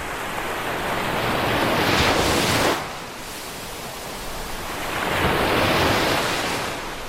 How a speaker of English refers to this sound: Roll on the summer. I love this sound. I'll play it for you again. What did you hear? It's waves lapping. That's right, waves lapping on the beach.